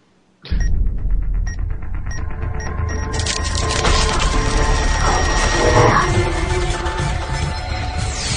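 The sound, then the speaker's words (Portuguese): A loud warning signal marking the start of spoilers bursts in abruptly and blares without pause for about eight seconds, a harsh, distorted alarm-like noise with short beeping tones at the start and no voices. “Quando tocar esse sinal, você para de ouvir e só volta quando tocar o sinal de novo.”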